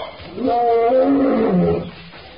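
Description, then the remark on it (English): A single deep, drawn-out lion roar swells up loud, with strong rumbling harmonics that slide downward before fading out after about two seconds. “Tarzan ran through the forest, approaching rapidly the roar of the lion and the scent of the native boy.”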